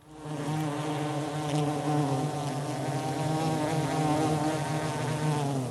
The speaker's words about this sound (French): L'abeille celui-là est relativement facile,